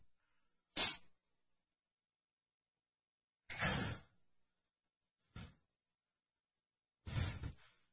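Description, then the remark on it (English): A chair is shifted into position with four short, heavy thumps and scrapes at uneven intervals, fairly loud, with silence between them and no one talking. “I need a chair. I need you to help me, Elder.”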